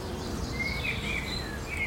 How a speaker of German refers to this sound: Und so zwitschern hier die Vögel, während Bienen summen.